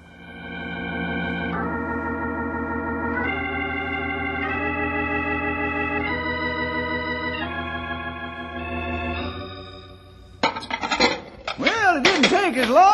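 washing dishes

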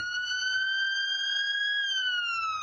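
ambulance siren passing

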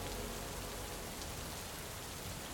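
rain falling

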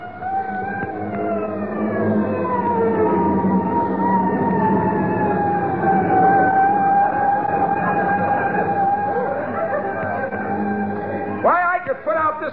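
fire engine siren approaching

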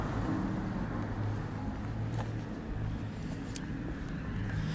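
car road noise

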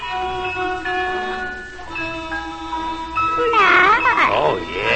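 cat meowing

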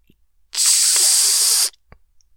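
aerosol spray can spraying

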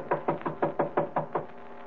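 knocking on a door

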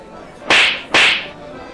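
slap

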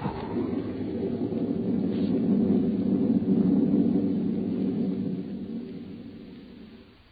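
thunder crash

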